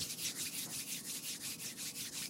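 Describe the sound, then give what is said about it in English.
A woman rubs her hands together briskly back and forth to make a beat, a steady swishing rhythm like a shaker, about five strokes per second, fairly quiet with no voices. “Anyway, she like made a beat by rubbing her hands together, and it made like a shaker sound.”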